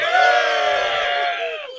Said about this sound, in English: There, our our yell track is working now.